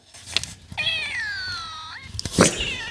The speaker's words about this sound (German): mein Katzenjingle.